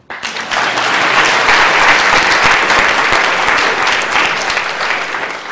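A crowd applauds steadily, a dense wash of many hands clapping that starts abruptly and holds at a loud, even level for several seconds before easing slightly at the end.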